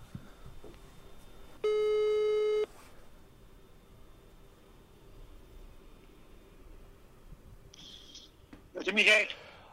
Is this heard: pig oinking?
no